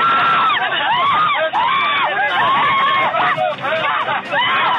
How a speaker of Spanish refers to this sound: Uno de ellos se enfrasca a golpes con un usuario. Se escuchan gritos. Otros pasajeros intentan detener a los ladrones, pero disparan.